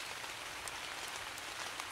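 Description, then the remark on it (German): Soft, steady rain patters on a surface, a dense hiss of fine droplets with a few slightly brighter drips standing out, fairly quiet and continuous with no voices. “Yes, Regen, der die Erde äh, nass macht, der alles wieder zum Wachsen bringt, der sanft tröpfelt”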